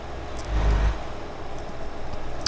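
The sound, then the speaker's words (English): A yellow Renault truck's engine drones steadily as it drives in a truck simulator, coming off the highway onto an off-ramp, a low rumble that swells briefly near the start before settling into an even hum, with no one speaking. “Um, here in my yellow Renault truck.”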